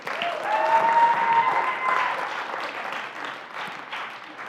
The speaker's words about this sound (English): So let's give him and Emily a round of applause, can we?